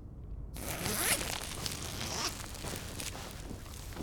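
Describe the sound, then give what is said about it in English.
A zipper rips open with a long, rasping pull, followed by rustling fabric and shuffling as outer protective suits are taken off in the first section; steady, moderately loud, with no talking. “We have to take off our outer suits in the first section, and, without touching the outside of them, drop them down that chute to the engines.”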